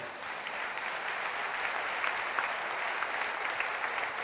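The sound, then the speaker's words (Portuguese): An audience claps together for the name of Jesus in sustained, dense applause, a steady wash of many hands with small sharp peaks, holding at an even level for several seconds with no one speaking. “Porque a glória toda só pode ser dada a Jesus Cristo, e eu gostaria que você aplaudisse o nome dele.”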